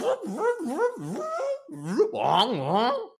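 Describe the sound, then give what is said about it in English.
A dog whimpers and whines, its high, wavering cries rising and falling in pitch in a nearly continuous run for about three seconds. “Your dog is really good at making sound effects”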